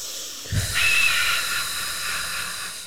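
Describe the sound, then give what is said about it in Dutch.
A long, forceful breath pushed out through the mouth during a shaking exercise, a steady airy hiss lasting over two seconds, fairly loud, with a soft low thump at its start and no talking. “En dan ga je je ademhaling erin eh, brengen.”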